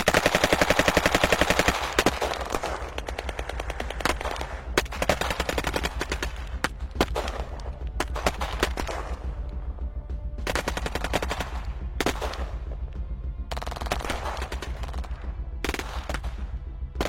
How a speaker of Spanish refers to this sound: El fuego comenzaba a hacer eco por toda la cañada. El fuego enemigo comenzó de manera desorganizada, pero muy intensa. Ellos no tenían bien identificadas nuestras posiciones y disparaban en ráfagas automáticas en dirección a la zona donde estábamos,